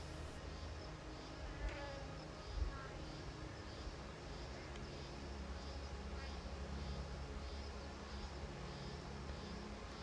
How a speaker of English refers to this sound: The lavender bushes are alive with bees and white butterflies.